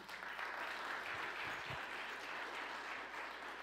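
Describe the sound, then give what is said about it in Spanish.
An audience applauds the Lord steadily for several seconds, a dense, even wash of many hands clapping at constant loudness, with no voices rising above it. “En la de atrás, del un aplauso fuerte al Señor.”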